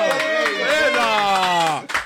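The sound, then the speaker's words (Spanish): A studio audience claps in a steady, rhythmic beat, loud, beneath a sustained voice cheering in a long, pitch-gliding shout. “¡Aplauso!”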